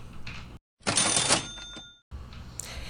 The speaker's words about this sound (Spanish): Venga, caja registradora.